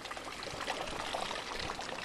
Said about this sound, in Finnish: Mä vedän sitä rännistä ja rännistä alas se vesi valuu ja lorisee ja lopuksi se tulee ämpäriin. Ja kuunnellaan se soundi, että miten se muuttuu. ämpärit jo täynnä. Nyt pitäisi päästä kaatamaan vettä muualle.